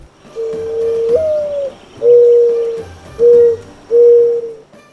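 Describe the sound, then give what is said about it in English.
A mourning dove coos its soft, mournful call: a long note that slides upward, followed by three steady, hollow hoots, clear with faint background ambience. “The mourning dove got its name from its sad cry, kind of like someone in mourning.”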